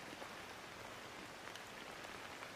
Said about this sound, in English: Let the face be completely soft and relaxed, and listen to the sound of rain falling while you feel your breath flowing softly in and out of your nose.